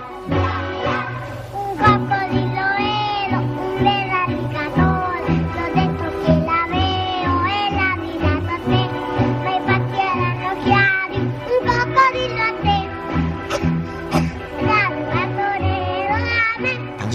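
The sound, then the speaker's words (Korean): A four-year-old child sings a bouncy song in a high, clear voice at a 1969 children's song contest in Bologna, Italy, over a steady instrumental accompaniment with a rhythmic bass, some phrases sounding like sung meows. “볼로냐에서 열린 동요대회 현장인데요.”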